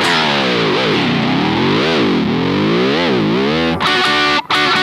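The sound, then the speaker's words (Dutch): A race car engine roars loudly and continuously, its harsh, buzzing pitch climbing and dropping several times as it revs, with no voices. “Nou, dan komt er uiteindelijk een auto. Ik zeg, is dat de auto van papa of mama van opa en oma? Nee, nee, ze raceauto.”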